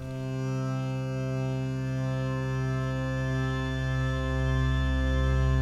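A steady, buzzing drone of hurdy-gurdies holds dense sustained tones throughout, opening a folk tune at a constant, fairly full level with no voices.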